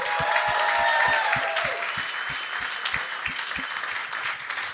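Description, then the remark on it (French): An audience applauds steadily, a dense wash of many hands clapping with a rhythmic thump underneath, loudest at the start and easing slightly toward the end, with no one speaking. “J'aimerais ça, il donne une bonne main d'applaudissement.”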